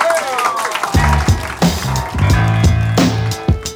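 An audience at a poetry evening presented by the Salon du livre de l'Outaouais applauds in a steady, dense patter of clapping that runs through the whole stretch, while a voice with sustained, tonal sounds rises over it.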